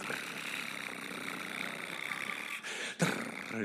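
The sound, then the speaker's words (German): A long chain of dominoes, around two million at the televised Domino Day record attempt, topples in a dense, continuous rattling clatter, the rapid clicks blurring into a steady rush that briefly dips twice near the end. “Ob so zwei Millionen Dominosteine umgefallen wird. Erinnerst du dich noch an das Geräusch?”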